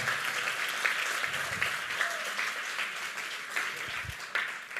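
An audience applauds for those baptized this week, a dense, continuous patter of many hands clapping at an even level, with a faint murmur of voices mixed into the crowd noise.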